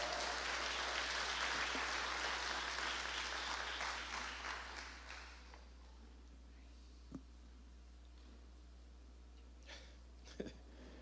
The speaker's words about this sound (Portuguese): Então dê um aplauso para Jesus bem forte, porque ele merece.